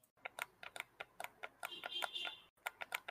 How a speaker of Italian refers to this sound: È il mio pad mentre schiacciavi i tasti L3 ed R3.